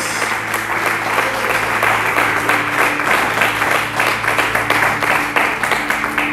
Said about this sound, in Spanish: Y le aplauden al mejor Dios.